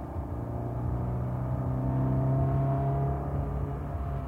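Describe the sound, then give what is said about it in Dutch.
A car engine drones steadily as the vehicle drives at speed, a loud continuous low rumble with a humming engine tone that rises slightly midway, with no voices. “Jongen, rijdt dat mensen altijd hard?”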